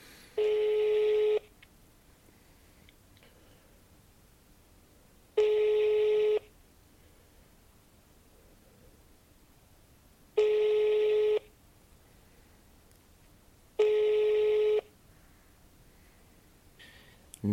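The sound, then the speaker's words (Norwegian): A telephone ringback tone repeats four times, each buzzy ring lasting about a second with several quiet seconds between, steady and clear, as a call to congratulate a new father goes unanswered with no voices. “Det er vanskelig å vite om han kan”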